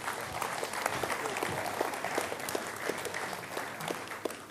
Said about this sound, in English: Let's give our assistants a round of applause. Thank you.